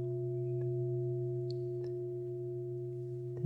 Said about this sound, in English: So, for example, if um, you've been hearing this bell for the last few weeks,